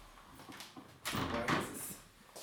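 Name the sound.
door being closed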